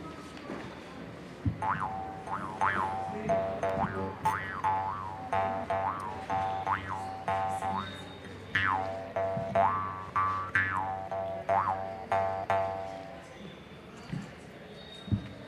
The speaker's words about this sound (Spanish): Ahora nosotros adoptamos un instrumento que se llama trompe, que es de metal con una lengüeta, con una membrana que hace un sonido y se coloca en la boca y la boca hace la resonancia del instrumento. Espero que suene bien.